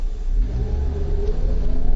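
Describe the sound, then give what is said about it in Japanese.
A car engine revs up steadily as the vehicle pulls away after refuelling at a petrol station, on a fine, hot day, heading to visit a pond. A loud low rumble with rising engine tones and no voices. “あ、そろそろ、はい、走ります。”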